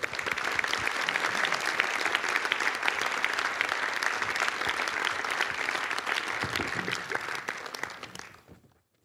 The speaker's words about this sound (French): Applaudissez-le.